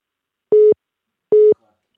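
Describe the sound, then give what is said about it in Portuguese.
Two short, identical call-waiting beeps on a phone line signalling an incoming call during a phone conversation, each a steady electronic tone about a fifth of a second long, separated by a brief pause, clear with no talking. “Agora estão-me a ligar aqui no, no, telefone e vamos ter este pipi.”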